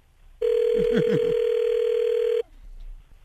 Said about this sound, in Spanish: le estamos marcando a tu vato, no haga ruido